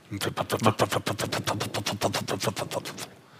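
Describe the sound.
A voice imitates the rotor of a pretend private helicopter, as usually done in the broadcast conference, with a rapid, steady chopping rhythm of breathy, buzzing pulses, about six per second, fairly loud and unbroken for roughly three seconds.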